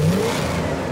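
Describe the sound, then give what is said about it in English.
A loud race car engine revs hard and accelerates in one brief burst, its rising whine sweeping upward over a dense mechanical roar. “Cars that sound like this”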